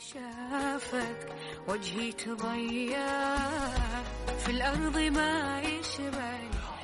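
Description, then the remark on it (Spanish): Relaxing Arabic music from the Emirates: a flowing, ornamented melodic line with wavering held notes, joined partway through by a deep sustained bass tone, played steadily with no one talking. “Esta música es de miratos eh, Emiratos Árabes.”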